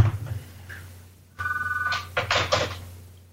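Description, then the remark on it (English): A telephone rings once in a brief electronic trill, then the handset clatters as it is picked up and set back down, with a low hum underneath. “Pick it up and hang it up.”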